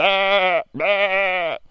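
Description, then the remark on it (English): A sheep bleats twice, two loud, drawn-out cries of roughly half a second each, separated by a brief pause, with no other sounds around them. “And all of a sudden, that sheep, he didn't want to get touched by those people, but he they got him down and they brought him into the barn.”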